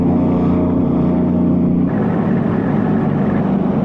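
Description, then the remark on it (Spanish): A border patrol motorboat on the river at the border between Texas and Piedras Negras, Coahuila, Mexico, its engine droning loudly and steadily, a continuous low hum whose tone shifts slightly partway through, with no voices. “Por agua, una lancha de la patrulla fronteriza.”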